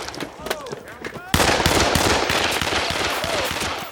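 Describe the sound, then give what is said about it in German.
In the film Kung Fury, a short voice and a few sharp cracks give way to a sudden, loud burst of rapid machine-gun fire shooting down a telephone, rattling on steadily to the end, shots tightly spaced and harsh. “Kung Fury ist äh, da noch vor Ort und äh, schießt das Telefon nieder.”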